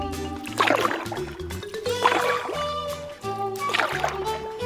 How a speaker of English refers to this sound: Rat and Mole row in the boat over to Toad Hall.